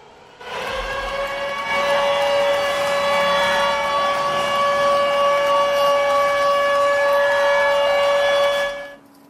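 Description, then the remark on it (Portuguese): A short musical intro sting: one bright, steady synthesized tone with rich overtones swells in and holds for several seconds, loud and close, then cuts off. No one speaks. “pessoal do Clubhouse não vai ouvir, mas o pessoal do podcast vai ouvir a chamada do, do, do Gotas de Inspiração”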